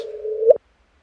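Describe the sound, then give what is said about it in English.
A steady, humming tone holds for a moment, then sweeps sharply upward in pitch and cuts off abruptly, a brief chirp from the gravitational wave signal of two merging black holes of about 30 solar masses each, detected by LIGO on September 14, 2015, with no voices present. “So if you know how to listen, that is the sound of two black holes, each of about 30 solar masses, that were whirling around at a rate comparable to what goes on in your blender.”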